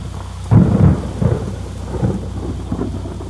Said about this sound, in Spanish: Era la una de la madrugada y fuera diluviada